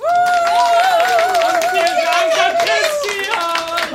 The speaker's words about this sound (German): Und vielen Dank an das Publikum. Das ist jetzt für euch selber ein Applaus.